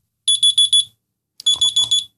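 A shrill electronic wake-up alarm beeps in two bursts of four rapid, piercing pulses, with a short pause between the bursts. It sounds loud, with no voices.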